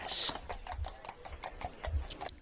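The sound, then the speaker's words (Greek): A ridden horse's hooves gallop in a quick, steady rhythm of sharp thuds, moderately loud, after a brief bright burst of noise at the start. “Ο Νογκασίκα Σαν σπυρούνισε στα καπούλια το άλογό του. Πάμε πιο γρήγορα φίλε μου.”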